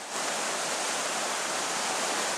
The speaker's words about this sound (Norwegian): Dette er lyden av den normalt så beskjedne Veipleåa som renner gjennom et av boligfeltene på Kvam. Ville og voldsomme vannmasser river med seg enorme mengder med stein, jord og trær, som på sin ville ferd ned fra Veikledalen knuser og ødelegger